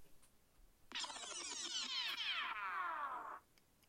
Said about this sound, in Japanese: で、こういうふうに話の内容が変わるっていうか、切り替える時は、このキュルキュルキュルみたいな音を流すようにしてます。